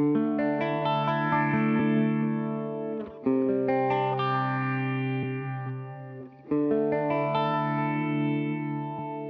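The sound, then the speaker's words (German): A guitar plays sustained, ringing chords through Uni-Vibe and phaser modulation effects, its tone wobbling and sweeping in a watery, phasey way. Three strummed phrases, each freshly attacked, no voices. “Ich habe das auch schon gemacht, wenn ich jetzt hier das Uni-Vibe anhab und den Phaser, ne?”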